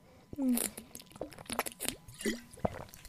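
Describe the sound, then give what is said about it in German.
Wet sipping and gulping sounds of someone drinking a sip of water, a few small slurps followed by swallows, with soft liquid clicks; no talking. “So, ich trinke jetzt einen Schluck.”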